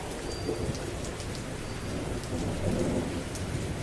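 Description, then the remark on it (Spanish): Heavy rain pours down in a steady, dense hiss, growing intense again, with a low rumbling undertone that swells slightly near the end. No voices, just the constant downpour. “La lluvia nuevamente comenzaba a ser intensa.”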